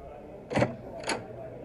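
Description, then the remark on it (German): A tavern door opens with two quick bursts of noise about half a second apart, the first slightly louder, over a faint low background hum. No one speaks. “öffnet die Tür zur Taverne.”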